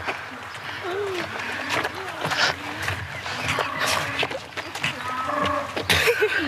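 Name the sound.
cow mooing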